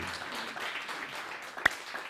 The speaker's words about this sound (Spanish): Dele un fuerte aplauso al Todopoderoso.